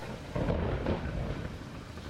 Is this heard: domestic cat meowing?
no